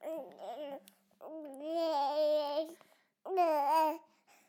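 A baby babbles in three bursts of drawn-out, sing-song vocal sounds, fairly loud, with short pauses between them and no adult talk.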